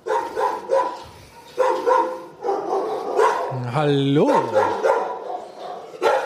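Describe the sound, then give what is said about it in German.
Several dogs bark repeatedly in the dog corridor of an animal shelter, overlapping into a busy, reverberant chorus, with one higher yelping whine rising above; a person speaks briefly amid the noise. “wenn man die Hunde sucht, muss man eigentlich immer nur äh, dem Gehör nachgehen”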